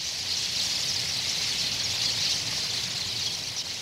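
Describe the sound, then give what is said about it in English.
A dense, continuous wash of high twittering calls from a large flock of tree swallows at Goose Island in autumn, blending into a steady chattering hiss with no single voice standing out and no talking. “Soon, all of Goose Island swallows will disappear below the southern horizon for the winter.”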